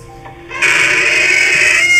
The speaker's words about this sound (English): It's a creepy door. It is creepy.